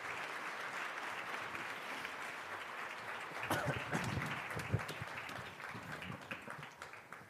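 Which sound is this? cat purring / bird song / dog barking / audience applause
audience applause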